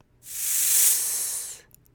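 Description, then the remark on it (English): A voice imitates a snake's hiss, making the s sound with the tongue against the bottom teeth, the teeth together, and air blown gently through them: a steady, drawn-out hiss lasting over a second, fairly loud, with a soft fade at the end and no speech. “Can you imagine the sound that a snake makes when it hisses?”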